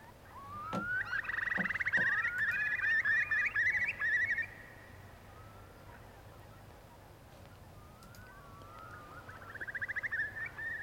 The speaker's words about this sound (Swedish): Det här är storspovar i alla fall.